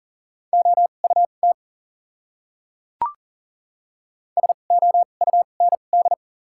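Morse code beeps at 40 words per minute with doubled character spacing, in a clear, steady tone, short and long pulses forming two quick bursts of letters separated by a pause with a single sharp click between them.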